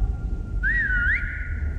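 A single sharp human whistle from firefighters checking on people at night, by a glowing lava lake in haze, rises and dips in pitch for about half a second, standing out clearly over a low, steady rumble of background noise.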